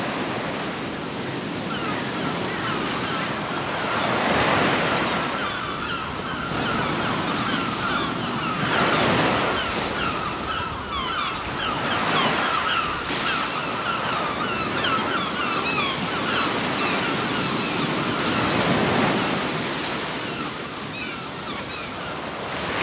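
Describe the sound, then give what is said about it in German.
Ocean waves break and wash onto the shore in a steady, continuous roar, with rhythmic surges rising and falling every few seconds. No voices, just the full sound of surf. “Der Sound des Meeres”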